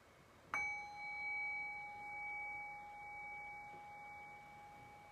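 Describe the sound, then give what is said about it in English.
A single bell is struck once to close a session, giving a clear ringing tone that hangs in the air and slowly fades over several seconds, heard alone. “So I'll ring the bell.”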